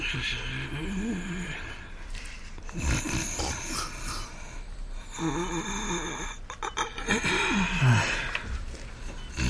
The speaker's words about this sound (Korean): 할머니가 잘 때 코를 골았었나?